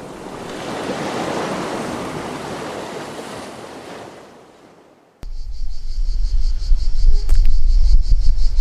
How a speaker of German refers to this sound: Und könnt ihr das Meer hören? Wir haben nicht das Intro einfach weitergelaufen. Wir sitzen finally wirklich am Meer Vielleicht sind die Zikaden nur leider lauter als das Meer und der Wind auch ein bisschen.